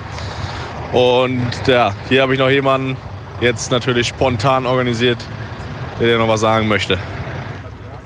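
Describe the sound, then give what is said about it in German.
A steady low car engine hum drones underneath throughout while a man speaks over it, the motor staying in the background without changing much, as the car leaves a motorway rest stop heading toward Kiel. “Naja, du hörst den Motor im Hintergrund.”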